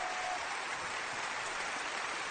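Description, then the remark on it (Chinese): Steady applause from a crowd, a dense, even crackle of many hands clapping at once, sustained at a constant moderate level for a couple of seconds with no voices. “哈哈，掌声可以了。”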